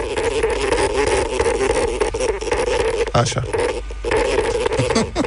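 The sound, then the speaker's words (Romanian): A hibernating dormouse, disturbed by being poked on the sole while sleeping on its back in its tree hollow, gives a harsh, continuous buzzing rattle, fairly loud, sputtering like a misfiring little motor for several seconds, with a brief spoken word at one point. “Asta este un pârș deranjat când hibernează.”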